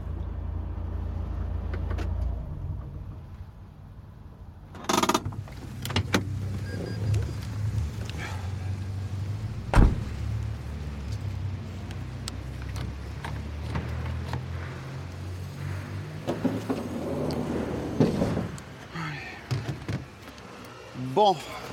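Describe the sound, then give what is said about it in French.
A delivery van's engine idles with a steady low rumble while the van is stopped at one of its parcel delivery stops, broken by a couple of sharp metallic clunks and scattered rattles and rustling. “là on est à l'arrêt de mon camion, allez pour faire euh, vite, euh, il y a encore une cinquantaine de colis, autant d'arrêts, donc bon j'ai pas fini ma journée.”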